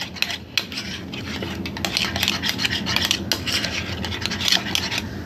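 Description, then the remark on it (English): A spoon stirs grits in a pot, scraping steadily against the metal in quick, repeated strokes. The sound is fairly loud, continuing for several seconds with no one talking. “Hold on one second while I study grits.”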